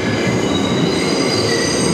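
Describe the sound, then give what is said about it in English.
A subway train rumbles steadily along the rails in the loop at the City Hall station, its wheels letting out a high, sustained metallic squeal over the loud, continuous roar. No one speaks. “Yeah, so we're, we're, actually stopped in the loop because there's a six train ahead of us uh-huh.”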